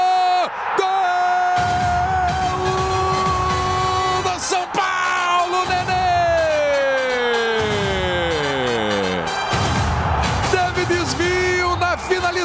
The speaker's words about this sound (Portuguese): Explode a torcida do São Paulo no Morumbi, a festa com Nenê.